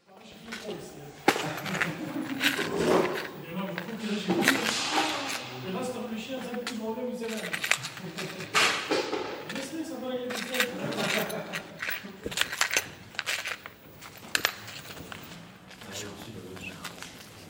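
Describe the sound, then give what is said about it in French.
Small metal screws and washers clink and rattle as someone rummages through them, searching for short screws to fasten the stand to a video projector, a steady scatter of sharp clicks, with a voice talking quietly over the top. “je suis en train de chercher euh, des vis euh, assez euh, courtes pour solidariser le pied de ce vidéoprojecteur avec le vidéoprojecteur.”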